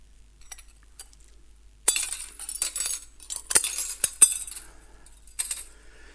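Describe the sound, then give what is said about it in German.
Glass pieces clink and scrape together as they are handled in a demonstration, with sharp bright clinks and rattling bursts around a brief quiet start; no one speaks. “Ich will das mal mit dieser, ähm, diesem Glas demonstrieren, wie Menschen mit einem, mit einem zerbrochenen Herzen leben.”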